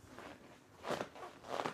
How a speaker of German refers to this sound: Hört ihr das? Mein Kunstledersessel knirscht.